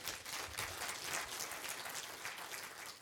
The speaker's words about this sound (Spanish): Un aplauso fuerte, Señor, déselo fuerte.